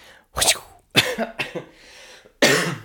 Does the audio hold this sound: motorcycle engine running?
no